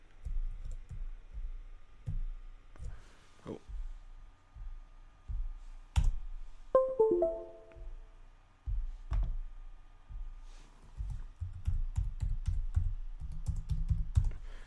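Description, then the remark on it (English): Typing on a locked-up computer keyboard, with irregular bursts of key clacks and occasional sharper taps. A short descending electronic chime sounds partway through. No one speaks. “We're having some issues here as my keyboard is locked up.”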